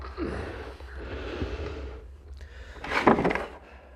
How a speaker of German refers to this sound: Ich muss die Schubladen aufmachen.